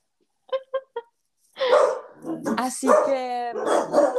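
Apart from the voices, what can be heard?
dogs barking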